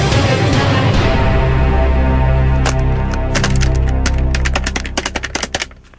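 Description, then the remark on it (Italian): A telephone sound: a steady, loud electronic tone holds for several seconds, then a run of sharp clicks like buttons being pressed, with no one talking. “telefono.”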